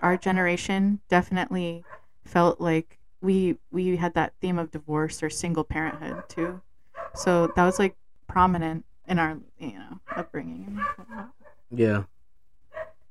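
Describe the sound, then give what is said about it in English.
A dog barks in short bursts while two people keep talking over it, the barking partly buried under their conversation. “Excuse the dog.”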